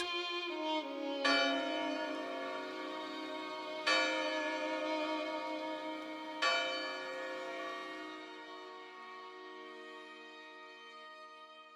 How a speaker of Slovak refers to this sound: Iba drevená väža, v ktorej byli zvony, aby zvolávali na služby obety Bohu. Vedeli, že Bohu treba slúžiť a keď je najhoršie, nechať rozozvúčať zvony, ktoré dajú okolitým úsadlostiam vedieť, že potrebujú pomoc.